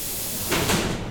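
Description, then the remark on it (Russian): A commuter train's doors slide shut with a sharp pneumatic hiss that swells briefly and fades, over a steady background rumble, on a commuter train in Rostov Oblast, Russia. “Осторожно, двери закрываются.”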